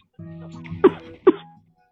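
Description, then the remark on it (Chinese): Two short, sharp coughs about half a second apart, each a harsh burst following a low, throaty vocal rumble. “你别咳了。”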